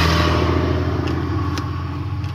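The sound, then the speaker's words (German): Steady, loud engine rumble from cars driving past in a parking lot, with a low droning hum and a few faint clicks on top, no voices. “Ah, ich stehe hier auf dem Parkplatz, deswegen fahren da immer Autos lang.”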